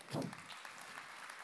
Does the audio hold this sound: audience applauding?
yes